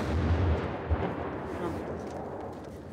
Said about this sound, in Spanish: A 26 kilómetros del frente, el ruido de los proyectiles no cesa.